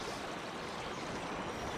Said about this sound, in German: Und wir haben eben auch dadurch, dass das Wasser kühler ist, weniger Verdunstung. Wir haben eine längere Strecke, die das Wasser hier durch den Wald fließt und im Zweifelsfall auch versickern kann